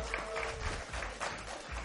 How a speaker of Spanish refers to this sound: Un aplauso para ellos. Y que están, allá arriba. Un aplauso, por favor.